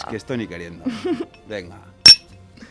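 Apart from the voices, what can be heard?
glasses clinking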